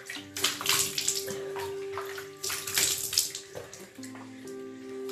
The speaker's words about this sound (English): so i'm using lukewarm water on my face